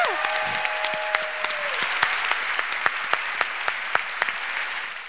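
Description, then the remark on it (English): A crowd claps steadily throughout, a dense round of applause for Gary O'Reilly with sharp individual claps popping out. A sustained whistle rings over it during the opening couple of seconds. “So if we could all give a round of applause to Gary O'Reilly.”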